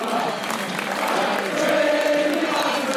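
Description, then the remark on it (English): A dense, steady roar of a football crowd at the end of a Brentford versus Birmingham City match, as the players are cheered off, with a faint sustained chant of crowd singing rising out of the noise midway through. The sound stays loud and unbroken throughout, with no clear voices standing out. “You can hear the crowd singing.”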